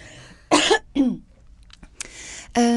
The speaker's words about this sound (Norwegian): Unnskyld, jeg må hoste.